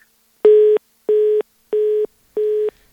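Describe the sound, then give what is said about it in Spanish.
Four evenly spaced telephone tones as the production team tries to restore the phone connection, each a short, steady, mid-pitched beep of the same pitch, sounding alone with brief silences between them and no voices. “Vamos a dar oportunidad a que la producción pueda recuperar la comunicación y nos eh, termine mm, de contar esta anécdota.”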